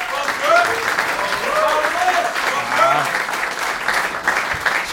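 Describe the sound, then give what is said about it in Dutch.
A steady burst of clapping from a group fills the whole stretch at even loudness, with a few voices cheering and calling out over the applause. “geef hem een applaus.”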